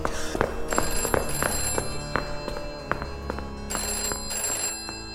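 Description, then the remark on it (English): A telephone rings with a bright, trilling bell, sounding in repeated bursts, with clattering and movement underneath the ringing. “how do I answer the phone?”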